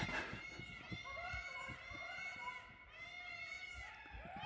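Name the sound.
peacocks calling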